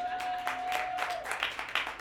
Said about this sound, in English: give a round of applause for him.